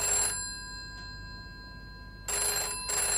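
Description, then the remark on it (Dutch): A telephone bell rings loudly in bright, rattling bursts at the home of Paul Verdurme, one brief ring followed by a long pause, then two more rings close together. There is no talking. “ten huize Paul Verdurme rinkelt de telefoon.”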